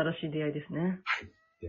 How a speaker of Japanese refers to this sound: ちょっと遠くで猫鳴いてないですかうちの猫がちょっと先走って出演しちゃいましたけど、すいません。かわいい。猫いるんですね。